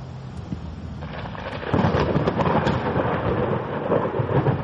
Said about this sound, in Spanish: Cuando la tormenta se encontraba más violenta, con vientos fuertes y espeluznantes relámpagos